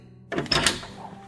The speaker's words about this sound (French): Et pire que ça, durant cette plaie de l'obscurité, les Égyptiens entendaient de drôles de bruits, des portes qui s'ouvraient